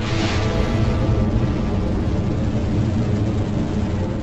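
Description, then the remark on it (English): Space Shuttle Discovery's engines roar at launch of mission STS-31 on April 24, 1990, just after 8:30 a.m. Eastern Standard Time: a loud, steady, rumbling blast heavy in deep bass that holds without a break for several seconds, with no voices. “Eastern Standard Time, the massive engines of the Space Shuttle Discovery roared to life.”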